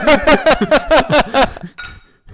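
beer glasses clinking

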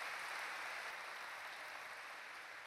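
audience applauding loudly

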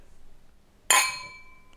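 beer glasses clinking

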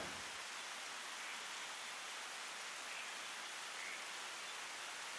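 steady rain falling

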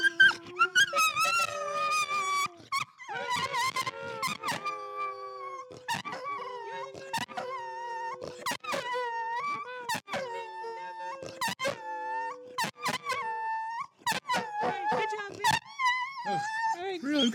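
dog howling

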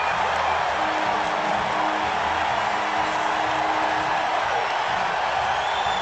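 stadium crowd cheering

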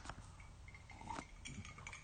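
glasses clinking

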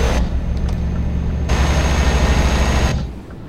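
car driving off

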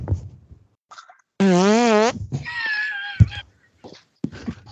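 fart

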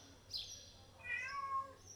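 cat meowing loudly

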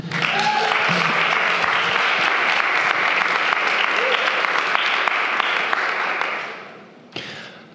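audience applause

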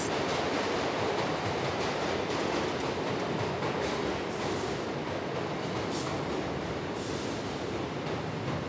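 subway train

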